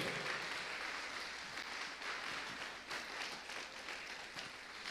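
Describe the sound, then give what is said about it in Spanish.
An audience claps for the King in a dense, steady wash of many hands, sustained at an even level for about five seconds with no voices standing out. “Hermano, dele palmas al rey.”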